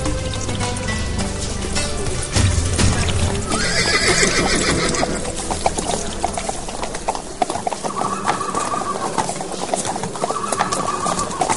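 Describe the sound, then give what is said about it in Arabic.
The sultan's horsemen's horses whinny with high, wavering neighs over a steady patter of hooves clip-clopping as they enter the kasbah and continue on to the stable, with faint bird calls in the background and no one speaking. “مادام دخلنا القصبة خيال سيدنا السلطان يكملوا طريقهم مربض الخيل”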